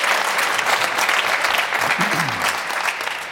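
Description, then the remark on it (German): Steady, dense applause from a large crowd of Bayern football fans, a continuous loud wash of clapping with a faint voice briefly rising underneath. “Da, da klatschen die Bayern-Fans hier, das versteht wir auch.”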